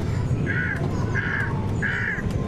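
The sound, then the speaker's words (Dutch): Three evenly spaced, harsh caws from an animatronic crow that stands by a mailbox in its own little birdhouse, each about a quarter-second long, ring out clearly over a steady low rumble of background noise. No one speaks. “Dat nou, daar kraait hij.”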